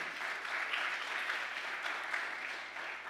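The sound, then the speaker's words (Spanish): An audience bursts into loud, sustained applause, a dense wash of many hands clapping at once that holds steady throughout, with no one speaking over it. “Del otro aplauso fuerte.”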